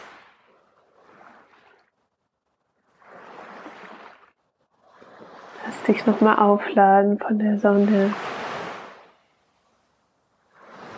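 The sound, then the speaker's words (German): Soft sea waves wash onto a shore in recurring swells, rising and fading every few seconds, with a calm voice speaking over the surf in the middle. “von dem Meer, von den Wellen.”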